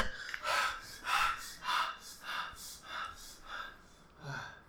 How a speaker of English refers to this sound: then it's panting.